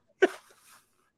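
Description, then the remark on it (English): A single sharp sneeze bursts out, loud at first and then trailing off into a brief breathy tail, with quiet around it. “Bless you.”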